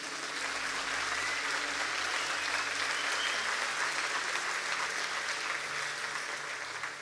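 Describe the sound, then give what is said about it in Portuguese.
An audience applauds together as an ovation for Christ, a dense, steady wash of clapping that holds at an even level for several seconds without a break, with no one speaking over it. “Uma salva de palmas para Cristo.”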